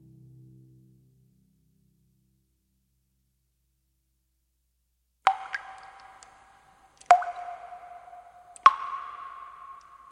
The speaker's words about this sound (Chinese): 滴答，滴答，梦里有雨的声音。